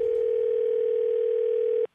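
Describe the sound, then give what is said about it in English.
A steady telephone line tone for a collect call from overseas to the United States hums at a constant pitch for almost two seconds, loud, then cuts off abruptly into near silence as the call connects. “And let's watch mom go crazy with a yeah. collect call from overseas, which could be sort of expensive.”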